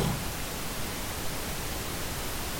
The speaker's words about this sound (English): And maybe you're hearing me only in between the static.